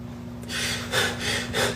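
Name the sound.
rapid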